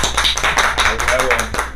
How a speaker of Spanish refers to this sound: Un aplauso para esas personas, güey, que la neta, mis respetos, güey, mis respetos. Un aplauso, hijos de perros